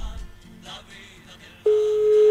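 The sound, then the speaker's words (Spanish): After a moment of faint line noise, a loud, steady electronic telephone tone abruptly starts and holds to the end, the busy signal heard after a phone interview call was suddenly cut off. “Se le cortó el teléfono inmediatamente.”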